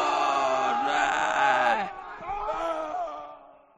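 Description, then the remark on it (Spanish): A group of voices bellows a loud, sustained battle cry together, holding the shout for nearly two seconds before it breaks into scattered, fading yells and whoops. “Oh, el grito final es muy bueno, ¿eh?”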